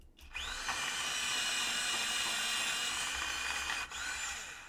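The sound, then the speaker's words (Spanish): A USB-charged electric pencil sharpener sharpens a pencil, whirring steadily for about three and a half seconds, a bright, high-pitched motor grind with no talking, stopping briefly before a final short burst. “Me he comprado uno eléctrico que se carga con USB. Oh, es una delicia. Mira, mira, mira cómo suena.”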